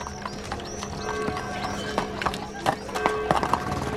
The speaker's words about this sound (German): Heute hätte das Rätseltaxi natürlich eigentlich ein Auto sein müssen, ist aber, man hört es schon, dann doch ein Kutschwagen geworden.